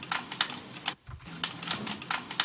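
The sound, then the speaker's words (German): Quick clicks of the right Ctrl key on a computer keyboard being pressed repeatedly in a steady rhythm, with a brief pause midway and no talking. “Jetzt drücke ich also Pfeil rechts, äh, Steuerung rechts.”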